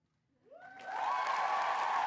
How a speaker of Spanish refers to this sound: Aplaudí al oír sus gritos. Me puse de pie y les aplaudí a ellas por este recibimiento tan increíble.